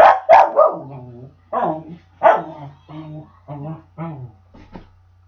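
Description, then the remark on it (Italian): A dog barks repeatedly in short, loud bursts, several barks in an uneven rhythm, with a faint steady hum underneath. “il gatto è particolarmente sonoro oggi e quindi eh, il cane ci tiene molto a dircelo.”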